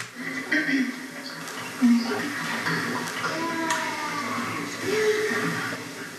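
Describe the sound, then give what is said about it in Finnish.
Several choir voices hum and slide between sustained pitches, tuning up before singing in a loose, overlapping cluster, with soft murmurs and rustling in between, at a steady moderate volume. “Ja siis ensinnäkin jo tämä, että tämä kohtaus, mikä tämän jälkeen tulee, alkaa tuommoisella vähän niin kuin äänen virityksellä.”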